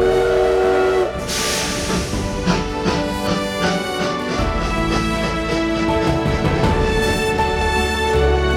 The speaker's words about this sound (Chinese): 接着，迫不及待地离开了这个不值得留恋的台北。搭上了开往新竹琼林乡的火车。